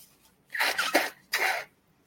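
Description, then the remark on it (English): Two breathy nose blows into a tissue, the first longer and stuttering, the second shorter, with a brief pause between and no talking. “So I forgot to blow my nose, so I will do that. Blowing my nose.”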